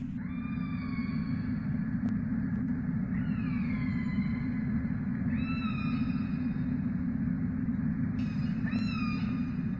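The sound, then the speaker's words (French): Orca vocalizations ring out underwater as the orcas hunt, in water of about 5 degrees: a series of high, drawn-out whistles and squeals with rising and falling pitch, repeating over a constant low rumbling wash of water noise. No one speaks. “c'est que les orques, donc on les entend, euh, on entend les vocalises, et généralement, lorsqu'elles chassent,”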